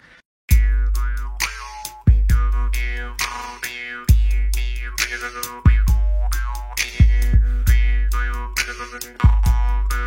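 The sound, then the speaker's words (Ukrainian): A drymba (jew's harp) twangs in a steady plucked rhythm at the start of a piece in the Dorian mode, each sharp attack ringing with a buzzing, vowel-like drone that swoops in pitch. Fairly loud, and played alone without any voices. “Там дримба на початку звучить, потім тилинка.”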